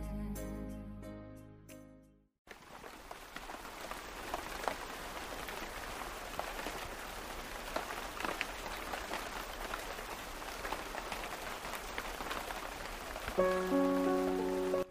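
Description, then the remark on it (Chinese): Steady pattering rain in Vietnam in May, during the rainy season, with a dense, even hiss of drops, following a brief stretch of tonal music that fades out; faint music-like tones return near the end. “之所以听见淅淅沥沥的雨声，是因为五月份的时候，越南其实已经进入雨季了，所以我们在大乐的两天行程中，几乎每天下午都能看见雨。”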